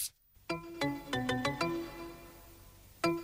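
A bright synth-pop melody plays alone, a quick run of clear, punchy electronic notes followed by a sustained tone and one more struck note, loud and close with no singing.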